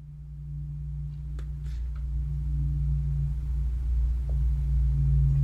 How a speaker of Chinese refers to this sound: 哎，你听，这就是外面飞机飞过的声音啊。